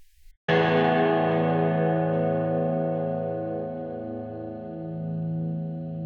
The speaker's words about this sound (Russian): Песня начинается и заканчивается двумя очень похожими звуками, затухающим а, гитарным аккордом. Начинается она вот так.